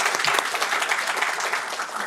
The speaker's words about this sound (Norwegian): Vi må gi dem en applaus.